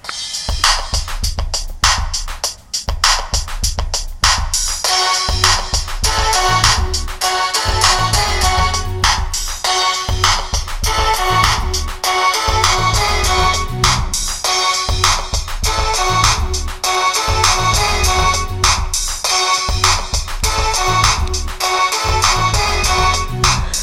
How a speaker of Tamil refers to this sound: இப்போ பாட்டு கேட்போம்